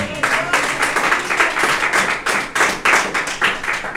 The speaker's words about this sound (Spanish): No sé si me entendió. Pero si me entendió, déle ofrenda de palmas al Señor.